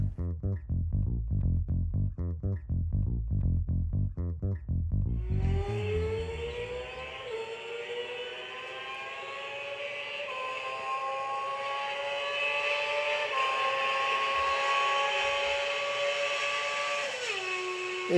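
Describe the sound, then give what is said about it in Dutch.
An R6 motorcycle doing a flyby: its engine throbs in low, rhythmic pulses, then bursts into a loud, high-pitched wail that climbs steadily and holds for several seconds before dropping in pitch at the very end. “Nee, dit is gewoon een random flyby.”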